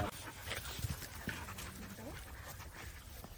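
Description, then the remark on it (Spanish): Puppies shuffle and pant, with a brief high whimper and scattered soft thumps, while people murmur faintly in the background. “Pero es serio con los cachorros, estos no le hacen nada.”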